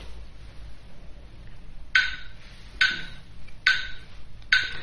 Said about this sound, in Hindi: ताल को बेटर समझने के लिए आप कोई भी मेट्रोनोम ऐप डाउनलोड कर सकते हैं सो मेट्रोनोम ऐप के साथ सप्तक गाने से पहले लेट्स सी कि आप उसके साथ क्लैपिंग कर सकते हैं कि नहीं